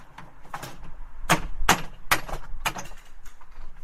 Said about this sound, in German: hämmern die Nägel aus den Latten und bauen die Hütte ab.